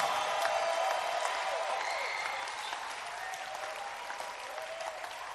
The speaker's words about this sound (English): Clap your hands and give a shout of praise to Jesus.